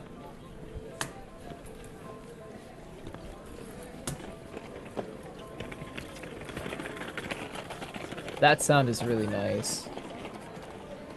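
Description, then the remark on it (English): A small trolley rattles along Brussels Street with steady clacking and clicks, growing louder as it nears and giving a brief metallic squeal before the end; someone speaks briefly. “going by maybe on Yeah, like, or so like a tram or yeah, a little trolley.”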